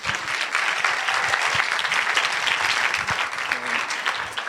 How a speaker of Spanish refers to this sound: Un aplauso